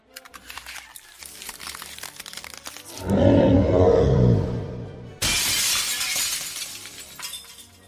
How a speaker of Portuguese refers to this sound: A barreira se rompe, você escuta um barulho dela se rompendo.